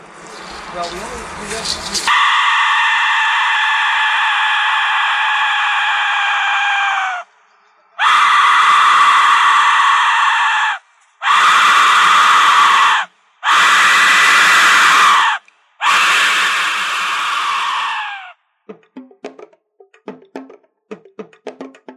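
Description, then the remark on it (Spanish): An Aztec death whistle gives loud, piercing shrieks like human screams, blown in five long bursts with short gaps between them, followed by faint scattered clicks at the end. “descrito como Mil Cuerpos Gritando, uno de los más aterradores sonidos recientemente descubiertos, proviene de un arma azteca llamada el silbido de la muerte.”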